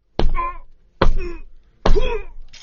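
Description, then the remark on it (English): A phone is smashed with hard, repeated blows: four loud cracking impacts about a second apart, each followed by a brief metallic rattle and ring as the pieces settle. “It's a little late to smash the phone.”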